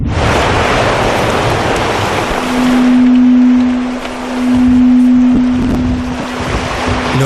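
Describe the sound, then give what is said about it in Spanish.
Underwater sea ambience recorded off the Lofoten Islands in northern Norway, the sound of marine life: a dense, hissing wash of crackling noise, joined partway through by a steady low droning tone that holds to the end. No voices. “Es la huella sónica de la vida marina.”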